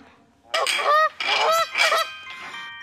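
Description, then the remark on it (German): Geese in a goose shed honk and cackle loudly in three or four harsh, overlapping bursts, with a fainter honk trailing off at the end. “Die Gänsen verschnatterten ihn laut.”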